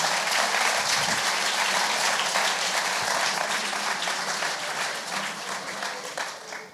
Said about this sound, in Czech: Já si myslím, že ještě jednou velký potlesk pro vás, že jste našli odvahu přijít za námi.